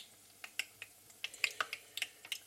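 Battered peppers deep-frying in hot fat, a soft steady hiss broken by irregular sharp pops and crackles, fairly quiet, with no one talking.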